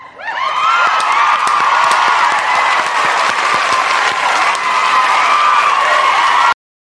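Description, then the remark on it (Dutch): A large crowd bursts into sustained applause mixed with cheering and a few high shouts, steady and loud for several seconds before cutting off abruptly. “En dat is denk ik ook wel gewoon eventjes een applausje waard.”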